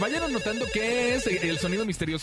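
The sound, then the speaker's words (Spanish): A phone ringtone chimes steadily in the background while a man talks energetically over it, the ringing staying moderately loud throughout. “sí, conejo. Contéstele.”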